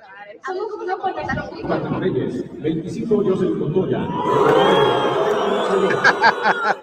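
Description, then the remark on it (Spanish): A large stadium crowd cheers loudly and continuously, the roar of many voices swelling midway into a sustained, chorus-like chant that carries on to the end. “Oye, la recibieron muy bien. Hasta en coro.”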